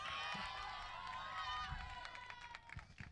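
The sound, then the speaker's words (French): A large crowd outdoors cheers and whoops steadily for a few seconds for children from an afternoon beatbox workshop, many voices overlapping in a loud, continuous wash with occasional higher shouts rising above it. “C'est les petits que j'ai eu en atelier cet après-midi, faites du bruit pour eux s'il vous plaît, come on.”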